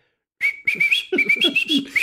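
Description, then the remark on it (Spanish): Someone whistles the theme tune of Todopoderosos in a major key, a short, bright melody moving through several quick notes in one continuous phrase, with a softer lower tone underneath and no speech. “me gustaría que silbaras el tema de Todopoderosos.”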